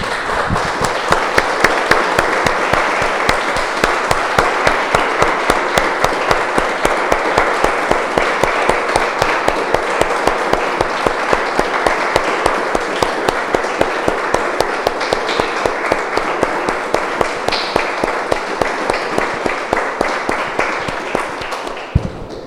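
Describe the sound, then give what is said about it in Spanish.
A large crowd of people claps steadily and loudly for over twenty seconds as applause for the Lord after a sermon and prayer, a dense, sustained wash of applause with sharp individual claps standing out, no talking over it. “Damos un aplauso, hermanos, al Señor.”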